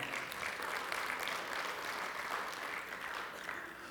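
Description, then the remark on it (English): A crowd applauds steadily for several seconds, giving the Lord a round of applause: a dense, even wash of clapping hands with no pauses and no one speaking over it. “Yeah, you can give the Lord a great round of applause.”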